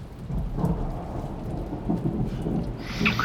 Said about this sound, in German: Das ist nur das Gewitter. Okay. Gewitter.